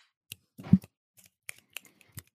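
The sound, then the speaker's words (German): Finger snapping, as audiences do instead of clapping when performers finish at poetry slams: a handful of sharp, dry snaps spaced irregularly, with one louder, rougher burst early on and the rest short and crisp. No voices accompany them. “Wenn, wenn Leute fertig sind äh, bei Poetry Slams, dann klatschen die nicht, sondern die schnipsen als.”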